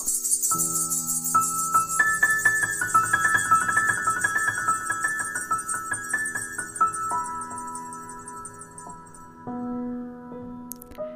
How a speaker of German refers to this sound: Denn das kleine Glöckchen an der Ladentür, das hatte viel zu tun. Denn diese Tür, die ging ständig auf und zu und auf und zu und auf und zu.